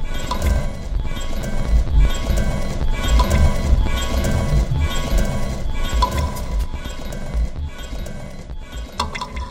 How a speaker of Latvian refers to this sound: Ja šo katru skaņu sasinhronizē ar smagu zābaku soļiem, tad nāk cilvēks bruņās. Bruņinieks viduslaikā.